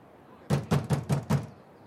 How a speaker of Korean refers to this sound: 마침내 전당포 앞으로 돌아온 그는 포장된 길바닥을 지팡이로 두어 번 힘차게 쿵쿵 찍으며 문 앞까지 다가가서 문을 두드렸다.